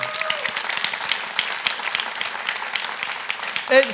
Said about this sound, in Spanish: Porque quieren servir a su Señor. Un aplauso al Señor.